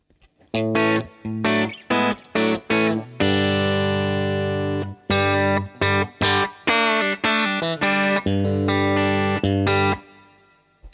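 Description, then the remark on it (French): Electric guitar through a slightly overdriven amp, played harder with a pick on the treble pickup, with choppy, punchy chord stabs, a long ringing chord in the middle, then more rhythmic hits carrying a gritty edge. No one speaks. “j'entendais que là, quand je lui rentre un petit peu plus dedans avec euh, le médiateur, l'ampli se met un petit peu à grogner, mais euh, y compris sur le micro aigu, je trouve ça fonctionne euh, franchement super bien.”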